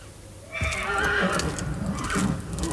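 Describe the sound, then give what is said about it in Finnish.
Horses whinny in loud, high, wavering neighs, one starting abruptly and another rising later, while hooves clop and shuffle underneath in an uneven rhythm. No one speaks. “Nouda hevoset kaader.”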